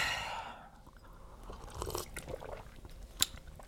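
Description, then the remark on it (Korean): A person gulps down a cold drink after a toast, a run of wet swallowing sounds following one another quickly, with a brief sharp click near the end and no talking. “아이고, 천천히 좀 마셔.”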